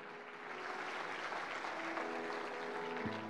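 An audience at a church service claps for Jesus steadily and densely for the whole stretch, a broad, sustained wash of applause with no voices, fairly loud and even throughout, with a faint low tone ringing underneath.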